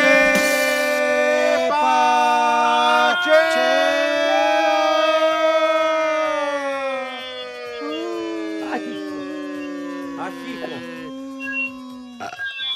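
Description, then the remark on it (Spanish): A voice imitates an ambulance siren with a loud, sustained wail that slowly rises and falls in pitch for several seconds, breaking off briefly between long vocal swoops. “Ahí viene, ahí viene la ambulancia.”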